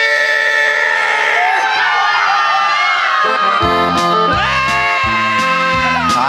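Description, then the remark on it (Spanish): A crowd lets out a loud, sustained shout, many voices whooping together over steady band music, filling the whole few seconds. “Ayúdame, grito machín.”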